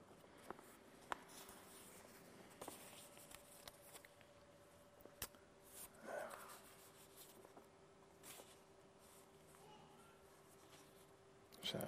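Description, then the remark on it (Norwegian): Paper sheets shuffled and flipped as someone leafs through their papers, having turned one sheet too far, with soft scattered rustles, brief crinkles and light taps over about twelve seconds, fairly quiet with no talking. “Her var det noe rot i papirene mine.”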